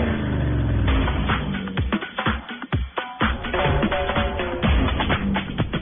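A car engine roars and revs, rising and falling in pitch with sharp throttle blips and brief dips between, loud and continuous with no voices.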